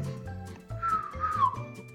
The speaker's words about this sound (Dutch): weet je, de, de meeste bouwvakkers fluiten naar de vrouwen. Maar eh, doe jij dat eigenlijk ook?